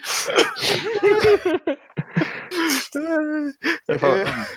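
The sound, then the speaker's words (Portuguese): A man coughs repeatedly in harsh, irregular bursts, fairly loud, with strained voiced groans and breaths between the coughs. “O cara começou a tossir.”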